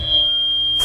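A piercing, steady high-pitched audio feedback howl (Larsen effect) rings continuously as a single sustained tone, with a faint hum underneath and a brief burst of noise at the very end.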